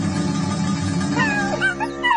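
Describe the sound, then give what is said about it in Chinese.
A frightened brown wolf pup in a cactus forest whimpers in a few high, wavering whines that rise and fall, coming in partway through over a steady low droning background. “它在仙人掌森林，声音听起来很害怕。 我们要赶快过去，不然棕狼宝宝会受伤的。”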